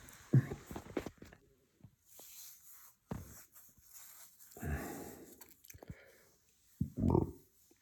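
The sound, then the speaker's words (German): A short burp near the end, preceded by scattered clicks, rustling and soft mouth noises in otherwise quiet surroundings. “Das war ein Rülpser.”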